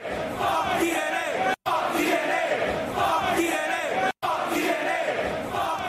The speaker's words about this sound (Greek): Γιατί ο κόσμο είναι απ' έξω, ε, φωνάζει, πετάει ρουκέτε, ρουκέτε σιγά βρε μαλάκα.